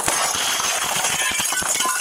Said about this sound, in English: A house is ablaze, and a little boy is trapped inside. A deputy sheriff smashes the window.